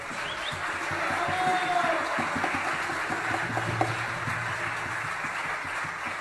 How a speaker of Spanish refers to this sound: Este, voy a presentar a, los músicos que nos acompañan y quiero empezar por, quien acaba de hacer un, gran solo, un gran y largo solo de violín. César Rago, un fuerte aplauso.